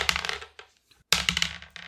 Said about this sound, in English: Let's roll dice.